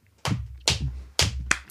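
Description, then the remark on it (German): A handful of slow, separate hand claps welcoming a guest, fairly loud, spaced unevenly over a couple of seconds with no voices, more like one person clapping than a crowd's applause. “Ähm, und zwar Applaus.”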